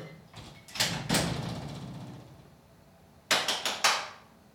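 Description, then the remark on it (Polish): A door bumps and rattles shut as a person steps out and closes the room. After a short pause, four quick, sharp hand claps ring out in a fast rhythm from outside the closed room, testing whether the recorder picks them up. There is no talking. “albo może ja jeszcze wyjdę na chwilę za drzwi, zamknę pokój i wtedy spróbuję klasnąć i zobaczymy, czy, zobaczymy, czy on to zbierze.”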